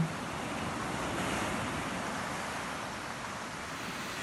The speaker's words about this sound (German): Und jetzt geht deine Aufmerksamkeit noch einmal auf das Meeresrauschen und auf die Schrei der Möwen. Vielleicht raschelt es auch, weil der Wind so wunderbar bläst um dich herum.